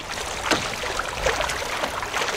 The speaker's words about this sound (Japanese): だんだん高い音が高くなってきますこうスピード上げると。今ちょっとスピードを出して水上散歩から水上ウォーキングぐらいのスピード出してみましたこの水面を走る音最高